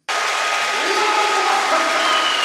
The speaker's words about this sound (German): Ihr habt den Applaus von unserer Tribüne direkt vor uns